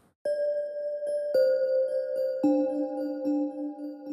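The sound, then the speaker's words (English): Temple-like, gamelan-like metal bell tones for meditation music, struck one after another, each clear note ringing on with a delay effect and overlapping the next as the pitch steps down, with soft extra taps between the main strikes. “It's got the sound of something that might sound like what you hear in a temple”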